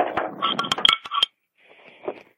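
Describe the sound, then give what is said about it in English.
A beer can being opened with a can opener: a quick cluster of sharp metallic clinks and clanks, a brief pause, then a softer, fainter fizzing hiss with no one talking. “I have my can opener. I got mine. I'm going to make lots of noise so you can hear it. I'm opening mine.”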